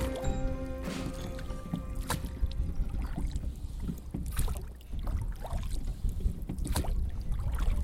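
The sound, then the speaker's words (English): Oars dip and pull through the frigid water of the Colorado River, three quarters of a mile deep within the Grand Canyon, as a boat is rowed in a steady rhythm, with splashes and trickling drips between strokes over a constant rushing background of flowing water. “Three quarters of a mile deep within the canyon, this is the sound of oars dipping into the frigid water of the Colorado River.”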